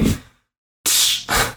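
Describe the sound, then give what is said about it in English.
A voice imitates a bandage being ripped off: a short breathy burst, a pause, then two loud, harsh, hissing rasps in quick succession. “That's the sound of the band aid being ripped off.”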